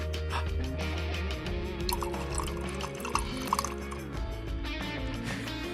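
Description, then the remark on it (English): Liquid pours steadily into a glass for several seconds, a continuous trickling and splashing with some dripping, and no voices. “That could be any liquid. it could just be water.”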